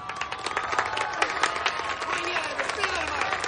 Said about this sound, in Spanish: Cuando sale a la calle, ve a un grupo de personas que aplauden y sonríe emocionada.